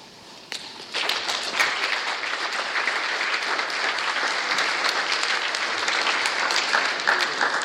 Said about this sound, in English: Uh, thank you very much. That's encouraging to be clapped before I've actually said uh, anything.